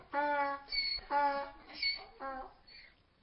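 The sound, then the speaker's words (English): A donkey brays in a few harsh, wheezing bursts that alternate between high and low tones over about three seconds, moderately loud, with no talking. “Coming from a donkey, that's a great sound, but when you hear another human being go, Eaw!”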